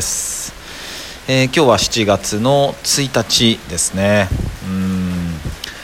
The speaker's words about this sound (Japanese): ちょっとね本当結構な東京は大雨なので、えー、ちょっと後ろで雨の音が、えー、聞こえて聞きづらいかもしれないですけどもごめんなさいご了承くださいませね